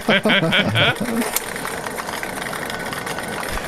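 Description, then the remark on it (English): Ping pong balls tumble and rattle inside a lottery machine, a steady whirring clatter of rapid light clicks; a voice sounds briefly at the start before the churning continues alone. “Listen to that. All the ping pong balls sound, just... sound of hopes and dreams right there.”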